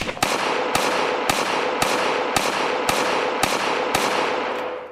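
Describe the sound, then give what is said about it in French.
About nine sharp gunshots, fired almost point-blank from a car stopped on a street in Queens, New York, on 24 May 2000, come at a steady pace roughly half a second apart, each loud crack standing out over a constant rushing background noise. No one speaks. “Il se fait tirer dessus neuf fois, presque à bout portant.”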